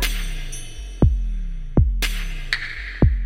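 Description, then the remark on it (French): Freestyle beatbox mouth percussion, with deep booming kick sounds that drop in pitch, spaced about a second apart, and sharp hissing snare-like bursts between them. Steady rhythm, fairly loud, with no talking. “Bah, tout d'abord, on a fait du beatbox. C'est euh, des bruits en fait de bouche en même temps.”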